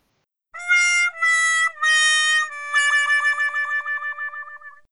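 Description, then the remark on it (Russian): A sad trombone sound effect: three descending brassy notes followed by a long final note that wobbles and wavers as it fades out, with no voices. “Или, не, не, не нужно, нужно этот, э, как это называется, бабаяна, вот этот звук жалостливый. На-на-на-на.”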